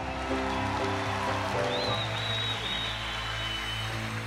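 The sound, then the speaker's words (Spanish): An audience applauds in a steady, dense wash of clapping, with sustained keyboard chords ringing underneath and a thin high tone sliding in partway through. No one speaks. “Si yo fuera usted, aplaudiera me un poquito.”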